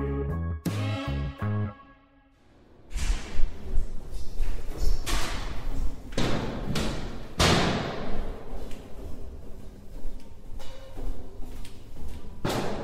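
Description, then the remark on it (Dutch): A heavy door of a work building in Amsterdam thumps and clunks several times as someone struggles to get in, loud irregular bangs and rattling mixed with shuffling noise, after a brief tonal buzz at the start and a moment of quiet. “We hoorden de, moeizame eh, manier waarop je je toegang moet verschaffen tot het gebouw waar wij eh, alle werken, het in het gebouw in Amsterdam.”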